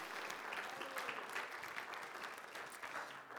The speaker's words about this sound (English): Give God a hand clap of praise.